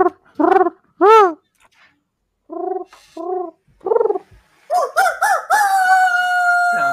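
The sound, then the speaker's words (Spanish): A rooster crows, starting with a series of short, choppy notes before breaking into a long, sustained, strained cry that carries to the end. Loud and clear, with no voices over it. “ese, gallo parece el papá de, de Chicken Little.”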